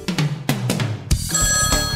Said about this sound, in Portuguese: É o telefone de novo.